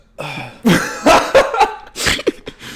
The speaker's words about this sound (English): I'm sorry for all the burping today, but you drink two fucking liters of eggnog.